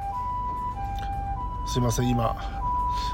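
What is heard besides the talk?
ambulance siren passing outside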